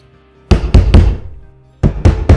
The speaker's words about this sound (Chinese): 传来又急又响的敲门声。